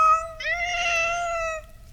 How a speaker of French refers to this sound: elle fit entendre à Ottaviolo 1437 miaulements différents de son chat